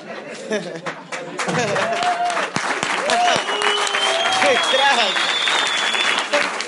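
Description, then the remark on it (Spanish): Loud, sustained audience applause fills the whole stretch, a dense crackle of many hands clapping, with scattered cheers and a high whistle rising over it. “Me gusta que aplaudan.”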